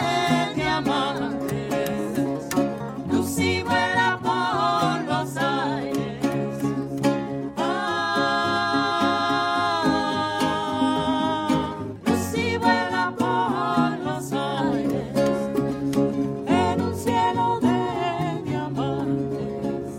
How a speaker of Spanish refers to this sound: De esta manera escuchábamos música grabada en vivo en la ciudad de Córdoba en el marco del cuarto encuentro de la canción infantil latinoamericana y del Caribe,